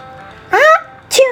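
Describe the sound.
A voice imitates a sneeze while telling a children's picture-book story about sneezing: a drawn-out, rising "ah" sound, a short pause, then a sharp, breathy "choo" burst that trails off into a voiced tone.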